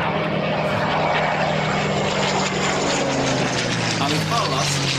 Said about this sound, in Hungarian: Van egy, igen, egy Spitfire 9-es, ami még ugye Merlin motoros, nem Griffon, mint a későbbiek.